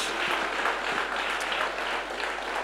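A crowd applauds steadily, many hands clapping in a dense, continuous wash of sound that holds at an even level throughout.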